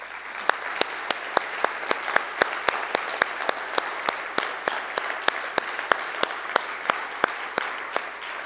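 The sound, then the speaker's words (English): Sustained audience applause for military service members and veterans who have stood up: a dense, steady wash of many clapping hands, with one crisp clap standing out in an even rhythm a few times per second throughout. No one speaks. “clapping of the hands does little to recognize the amazing sacrifice that our veterans, our current military, and their families have given for our nation and for our freedom.”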